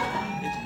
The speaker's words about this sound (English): The fire alarm just went off again. you have now entered the Twilight Zone. Um, we're going to stand by for a second and find out if that is a real fire alarm.